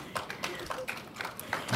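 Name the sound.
audience applause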